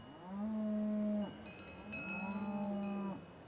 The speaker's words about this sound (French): Le tintement de leurs cloches semble si lointain maintenant, leurs mugissements apeurés lui paraissent irréels. Et pourtant le troupeau tente bel et bien de l'avertir en poussant de longs cris désespérés.